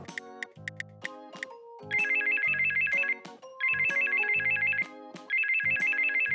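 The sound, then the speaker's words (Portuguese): A phone ringtone for an outgoing call plays with no talking: short tonal melody notes, then three bursts of rapid, high trilling rings, each about a second long, alternating with the melodic phrases. “Estou com tantas saudades do meu amiguinho Nino. Vou ligar para ele.”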